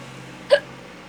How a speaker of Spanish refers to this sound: Ay, me dio hipo.